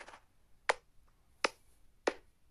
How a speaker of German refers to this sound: Und wir klatschen und es macht keinen Sinn.